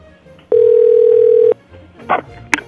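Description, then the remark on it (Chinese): A loud, steady telephone dial tone holds one mid pitch for about a second, then cuts off, followed by a couple of short clicks or bursts as a call is placed to a women's clothing shop. “然后他打了电话给女装店。”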